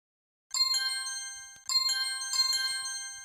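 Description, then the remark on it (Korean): Two bright, bell-like chime alerts ring out in succession, each a quick cluster of tinkling tones that rings on briefly: a job-search app's job alert notification sounding twice on a phone, with no voices around it. “앱에서는 하루 종일 일자리 알람이 띵, 띵 울렸다.”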